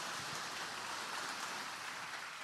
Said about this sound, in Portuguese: Vamos receber o pastor com uma linda salva de palmas.